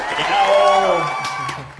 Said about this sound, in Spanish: Un aplauso.